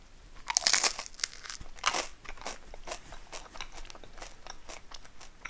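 Crunching from someone biting into and chewing bread they toasted, eaten during a lunch-break chat: a loud, crisp first bite followed by a steady series of softer, dry crackling chews, with no talking.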